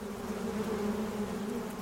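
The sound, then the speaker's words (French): A steady, dense hum of a honeybee colony inside a hive, clustered tightly around the wax combs holding honey reserves, with the queen at the centre, while it freezes outside; a low continuous drone with a faint buzzing texture, even throughout with no voices. “nous entendons un grésillement un vrombissement sourd, un bourdonnement. À l'intérieur de la ruche, la colonie s'est resserrée, elle s'est contractée autour des rayons de cire dont les alvéoles contiennent les réserves de miel.”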